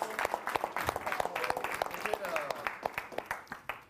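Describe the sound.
Audience applause for everyone in the room, people who went from couch potatoes to public speakers: many hands clapping in a dense, irregular patter that holds steady for the whole stretch, with a few voices calling out over it.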